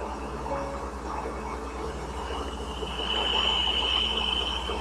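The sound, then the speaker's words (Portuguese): A Voyager spacecraft recording of very low frequency plasma waves detected while approaching a planet: a dense, steady electronic hiss threaded with sustained bell-like ringing tones, one high tone rising into prominence partway through, with no voices. “ainda mais do planeta, a Voyager detectou um misterioso fenômeno através de frequências muito baixas de ondas plásmicas.”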